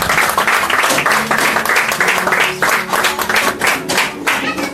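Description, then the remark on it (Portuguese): A church audience claps and applauds the Lord steadily, a dense, loud wash of many hands with faint rhythmic pulses running through it for several seconds. “Aplauda o Senhor.”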